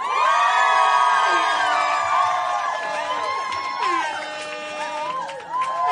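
A large audience erupts in loud, sustained cheering, full of high-pitched screams and whoops, with clapping mixed underneath. The roar stays intense for several seconds.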